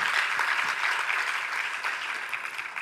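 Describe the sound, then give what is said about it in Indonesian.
An audience claps steadily together as applause for God, Jesus Christ, a dense, sustained patter of many hands filling the room at a fairly loud level with no one speaking over it. “Berikan tepuk tangan sekali lagi bagi Tuhan kita Yesus Kristus.”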